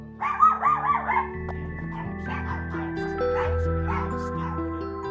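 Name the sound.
dogs barking and yipping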